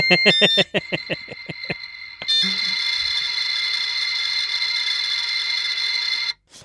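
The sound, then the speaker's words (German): A dial-up modem connects: about nine quick dialing beeps in a rapid rhythm, then a loud, steady hissing, screeching handshake drone with high whining tones that holds for around four seconds and cuts off abruptly. “So ein, so ein Modemgeräusch.”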